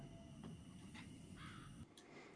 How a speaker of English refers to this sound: I can hear like owls or something.